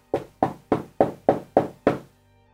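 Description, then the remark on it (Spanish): Seven sharp knocks on a door in a quick, even rhythm, each a solid wooden thud with a short decay, clear with no voices. “Luego de eso vuelves a retomar la concentración en tus quehaceres y un par de segundos después escucha que alguien toca tu puerta.”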